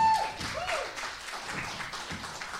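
An audience at City Chapel church applauding as a pastor is invited to come up and share the church's story, a steady wash of dense clapping that holds at an even level throughout, with a brief high tone at the very start.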